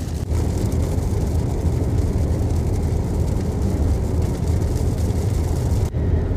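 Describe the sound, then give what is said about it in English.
Heavy rain pours down in a steady, dense roar with no letup, a thick wash of hissing and drumming that stays loud throughout and briefly dips near the end. “okay now it is pouring let's take a second and i'll continue this when it's a bit softer with the rain”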